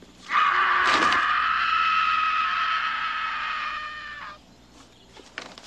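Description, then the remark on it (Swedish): A young man lets out one loud, sustained, piercing scream lasting about four seconds as he wakes from a bad dream, then it cuts off abruptly into near silence. “… vaknar upp skrikandes.”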